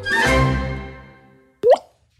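A sustained, ringing musical tone fades out slowly, then a single sharp water-drop plop with a quick upward-bending pitch sounds clearly on its own, a teardrop sound effect in an anti-drug advertisement.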